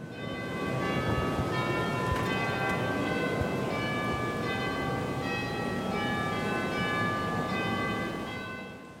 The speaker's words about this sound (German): da oben in der Decke, da erklingt jetzt dieses Glockenspiel